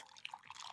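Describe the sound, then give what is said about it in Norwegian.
Cold coffee trickles into a paper cup, a soft, brief splash of liquid with a few small drip-like plops standing out, faint overall and with no talking. “jeg kan helle, helle den kalde over i et sånt pappkrus”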